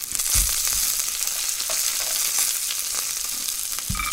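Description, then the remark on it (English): Food sizzles steadily in a hot pan in an apartment home kitchen, where a very small home operation cooks dishes including idli: a dense crackling hiss with a few soft clunks and scrapes of stirring; no one speaks. “Um, they have this very small operation, and they're cooking out of their apartment home.”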